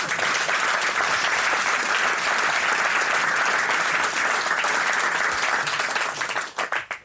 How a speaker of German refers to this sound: Applaus